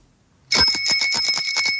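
A bicycle bell rings in a rapid, continuous trill, bright and fairly loud, starting abruptly after a brief near-silence and ringing on for over a second.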